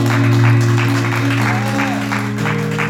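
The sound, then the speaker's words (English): A church audience claps and applauds loudly and steadily in praise of the Lord, with a sustained organ-like hum and scattered voices underneath. “Come on and give the Lord a hand of praise.”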